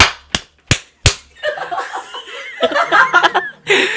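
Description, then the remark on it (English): Three loud, sharp slaps against a microphone in quick, even succession, each a harsh thump, followed by a burst of laughter. “Not me slapping the fucking microphone.”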